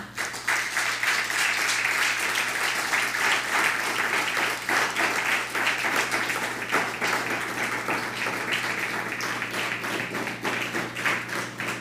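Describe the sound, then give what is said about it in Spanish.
Sustained, dense applause from a crowd giving a strong round of applause to the Eternal (God) at a gathering streamed live online, many hands clapping steadily for about twelve seconds, with a low constant hum underneath and no speech. “Dele un fuerte aplauso al Eterno.”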